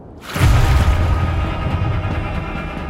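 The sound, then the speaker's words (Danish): A dramatic cinematic music hit marking a horse hitting a river lands after a brief hush: a deep, loud booming impact with a bright wash on top, sustaining as a rumbling tail for a couple of seconds without any voices. “Så når Matt rammer floden, så skal du ikke bare sige... Det skal jo sige... Og uden musik, så lyder det jo sådan meget stille og roligt.”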